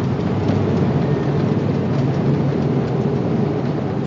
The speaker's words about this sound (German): schon sind wir gelandet.